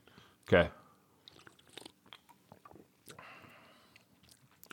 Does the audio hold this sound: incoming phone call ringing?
no